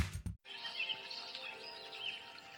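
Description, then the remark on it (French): Steady rushing water of flowing rivers fills the background while small birds chirp and trill on top, a soft continuous outdoor nature ambience at low volume, preceded by a brief thump. “Et en plus, normalement, je crois que vous avez un petit son euh, de nature, d'oiseaux et de rivières qui coulent derrière, en fond.”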